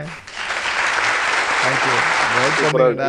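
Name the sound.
applause sound effect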